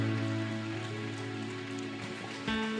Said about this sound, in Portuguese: Você pode dar um aplauso ao Senhor. Aplauda Ele.